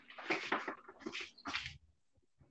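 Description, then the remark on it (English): A hamster gnawing at its cage: quick, scratchy bursts of chewing and rattling in uneven clusters, fairly loud, pausing briefly before starting again, with no one talking. “Hey, my hamster's trying to chew its way out.”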